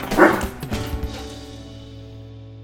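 A dog gives a couple of quick, loud barks, then falls quiet while a steady tonal background hum carries on.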